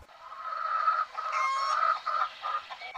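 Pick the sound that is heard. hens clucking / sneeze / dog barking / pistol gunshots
hens clucking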